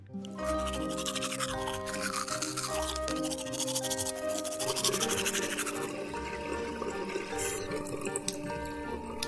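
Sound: toothbrush brushing teeth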